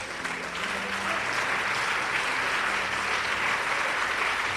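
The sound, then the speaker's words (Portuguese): A church audience applauds the Lord Jesus steadily, a dense, sustained wash of clapping that holds an even loudness for several seconds, with faint murmuring voices mixed underneath. “A igreja continua intercedendo e aplaudindo o Senhor Jesus.”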